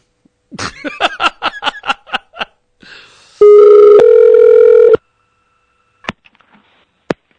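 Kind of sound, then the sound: signal or alarm, telephone call being redialed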